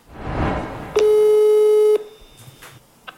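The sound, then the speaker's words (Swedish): A single steady telephone ringback tone from an outgoing phone call lasts about one second, loud and clear with a pure pitched hum, followed by faint line noise and a small click. “så ringde jag faktiskt till henne och frågade hur hur det kändes. Och jag spelade in det”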